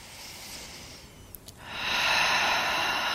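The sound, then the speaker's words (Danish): Slow, deep breathing during a yoga stretch: a soft, airy inhale, a brief pause, then a louder, longer rushing exhale. No one speaks. “Lad os lige bare lige tage to vejrtrækninger mere, der hvor end du er.”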